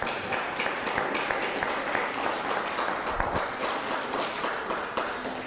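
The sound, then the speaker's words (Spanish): Sustained crowd applause for Pablo Andrade, a viewer watching from Rosarito, Baja California, in northern Mexico, a dense wash of many hands clapping at a steady, fairly loud level throughout, with no voices standing out. “Eh, den un fuerte aplauso a Pablo Andrade.”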